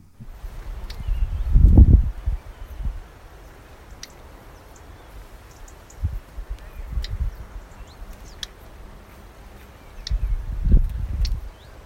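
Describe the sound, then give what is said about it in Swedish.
Short, sharp call notes of a possible hybrid between common redstart and black redstart ring out sporadically, several thin clicks spaced irregularly against a quiet outdoor background with occasional low wind or handling rumbles. “Lite rödstjärt plätt.”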